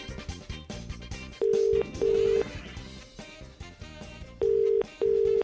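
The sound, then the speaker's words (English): A phone ringing tone sounds in two double-ring bursts, steady and clear, over a busy musical background with no talking, after a number is typed into a phone to place a call. “She's typing the number.”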